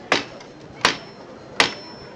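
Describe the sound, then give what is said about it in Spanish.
A metal knocker on a Holy Week float strikes three times, evenly paced. Each blow is sharp and loud, followed by a faint high metallic ring. No one speaks. “Suena el llamador.”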